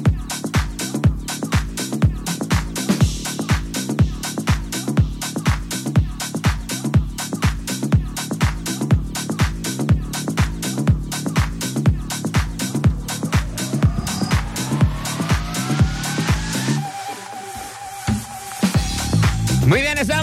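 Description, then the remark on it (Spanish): A loud rock song with a heavy, steady drum beat and dense guitars, playing full before breaking off near the end into a sparser, quieter passage. “Acabamos de escuchar a … con ….”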